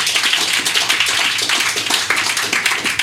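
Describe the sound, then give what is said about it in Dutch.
A crowd applauds a guest steadily, dense overlapping hand claps filling the whole stretch at a fairly loud, even level, with no voices breaking through. “Mag ik nogmaals een applaus voor Julian Galavasi.”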